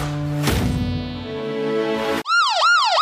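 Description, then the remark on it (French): A loud electronic siren, used as a 'discount alert' in a supermarket advertisement, wails in quick rising-and-falling sweeps, cutting in abruptly after a sustained, buzzy musical chord. No one speaks. “Oh, ah, l'alerte discount Tu l'attendais Oh oui, avec impatience”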